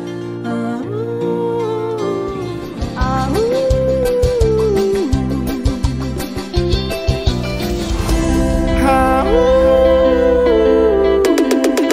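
An upbeat electronic forró song with a steady, punchy beat and synth lines, topped by a vocal that mimics a dog's barking in a melodic, sung style, loud and continuous throughout.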